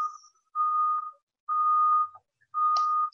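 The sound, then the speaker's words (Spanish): A steady, high-pitched electronic beep tone sounds three times in an even rhythm, each beep lasting over half a second with short gaps between, fairly quiet and with no voices. “Escucho un pitido de fondo, desde vuestra casa o...?”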